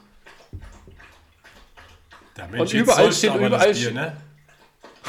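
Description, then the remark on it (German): A dog laps water from a bowl in a quick run of wet, splashy licks lasting a second or two, loud, while people talk before and around it. “Nein, das ist der Hund, das Ding.”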